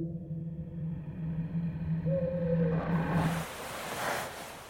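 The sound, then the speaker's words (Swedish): An eerie, drawn-out wailing cry like a woman weeping, heard somewhere in the background, its sustained mournful tones wavering before dissolving into a rushing hiss. No one speaks. “Någonstans i bakgrunden hördes ett klagande skrik”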